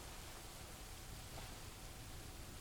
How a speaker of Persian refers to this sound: هیچی نگو بذار فقط به صدای بارون گوش کنیم